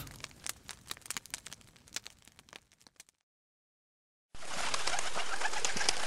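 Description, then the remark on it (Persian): A hungry pigeon coos in the morning amid a run of quick, sharp taps of its beak pecking at window glass for seeds, then brief silence before a steady rustling hiss takes over. “صبح فردا با ضربه های منقار کبوتر گرسنه‌ای که پی دانه به شیشه میکوبید آغاز شد”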